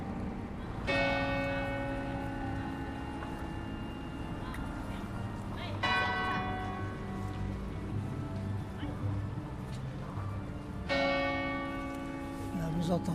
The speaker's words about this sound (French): le glas qui vient d'être euh, remis en service.